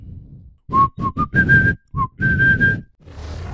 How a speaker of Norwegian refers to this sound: Sånn. Da har jeg begynt å gjøre opptak. Hvis du tar bare og plystrer oss inn.